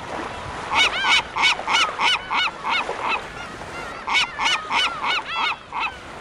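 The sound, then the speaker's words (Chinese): A chorus of seabirds, a seabird choir formed by Mrs. Puffin singing along, gives loud, nasal honking calls in two quick rhythmic runs of about seven or eight calls each, separated by a short pause, with no voices. “得意的组了一个海鸟合唱团，跟着唱歌，打算陪帕芬鸟一起奋斗。”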